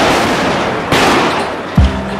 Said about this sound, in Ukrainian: До них додалися нечувані досі справжні звуки війни, перші вибухи світлошумових гранат за якими чути було крики людей та білий їдкий запах від вибухів. Ці перші вибухи згадують усі, хто бував на Майдані у Січні.